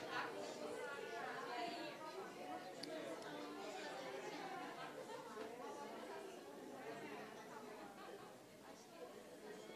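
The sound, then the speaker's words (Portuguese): A church audience of many voices chattering at once, a loud, steady hubbub of overlapping conversation as people mingle inside the church. “O crente é um povo barulhento, gente.”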